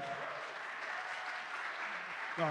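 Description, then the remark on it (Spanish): A steady wash of clapping from a small group, applauding a doctor, fills the whole stretch, dense and even, with a brief voice breaking in near the end. “un aplauso para el doctor.”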